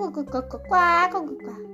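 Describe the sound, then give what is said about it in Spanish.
A person voices one nasal, drawn-out duck quack, imitating a laughing duck in a story, fairly loud, with brief vocal sounds just before and after it. “El pato, que era el más inteligente, se rió. ¡Cuac”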